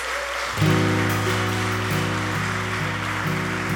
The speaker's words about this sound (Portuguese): Você pode aplaudir a Deus por isso em nome de Jesus.